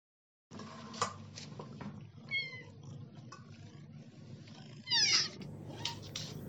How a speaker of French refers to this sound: Moi, ce que j'aime, c'est écouter mes petits chats qui ronronnent Ça s'appelle Jules Deleuze et Michel Foucault. Et quand on leur donne à manger, ils crient beaucoup et ils font beaucoup de ronron.